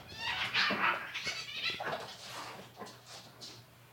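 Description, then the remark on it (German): Two pet cats fight, trading a quick burst of high, strained yowls and hissy cries over about four seconds, with scuffling underneath and a faint steady hum in the background. “Haben deine Katzen sich schon wieder. Ja, die kloppen äh, sich gerade.”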